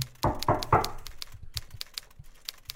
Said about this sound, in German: Sollen wir das dann mit dem Klopfen auch noch machen, oder?